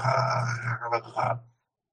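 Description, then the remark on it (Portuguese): A dog growls low and rumbling, fairly loud, in one continuous snarl of about a second and a half. It swells briefly near the end, then cuts off into silence. “Você vê o cachorro rosnando,”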